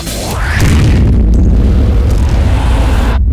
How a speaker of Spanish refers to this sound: En este momento, el tren está chocando.